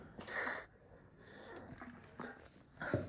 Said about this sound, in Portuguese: E olha aqui, gente, que legal minha garrafinha quando eu tomo água. Olha o barulho que dá.